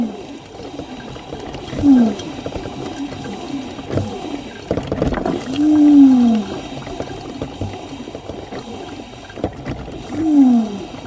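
A coffee machine groans and gurgles, with three drawn-out, moaning tones rising and falling at intervals over a steady bubbling, watery rumble. Moderately loud, with no talking.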